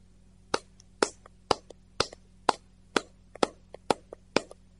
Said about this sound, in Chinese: 现在来看看，用另外一种方式来拍手。